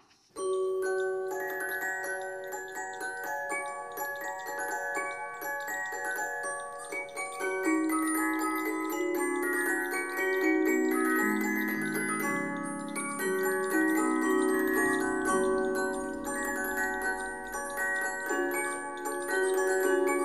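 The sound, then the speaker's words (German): A music box plinks out Water Music by Georg Friedrich Händel, a stately baroque melody, its bright metallic notes ringing and overlapping at a steady, moderate level for the whole stretch, with no voices. “das war Wassermusik von Georg Friedrich Händel von einer Musikdose gespielt.”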